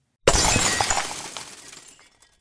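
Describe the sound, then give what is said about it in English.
A window pane shattered by a thrown half brick, with a sudden loud crash, followed by about two seconds of tinkling, scattering shards that fade out; no voices. “She heard a pane of glass shatter in the window and something hurled behind her to fall with a thud near the door.”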